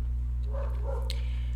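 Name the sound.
neighbors' dogs barking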